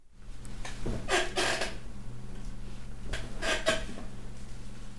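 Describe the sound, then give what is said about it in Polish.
An office chair creaks in two drawn-out bursts, each a grainy, rubbing squeak lasting about a second, over a steady low hum; no one speaks. It is a sound effect from a sound-effects library. “Teraz usłyszycie mój najczęściej wykorzystywany efekt skrzypienie biurowego krzesła.”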